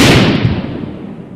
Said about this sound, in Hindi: विस्फोट की प्रचंडता के कारण सयाना सर उछलकर दूर जा गिरे इस भयंकर विस्फोट से सभा स्थल पर अफरा तफरी मच गई सबसे पास वाला तंबू थर्रा उठा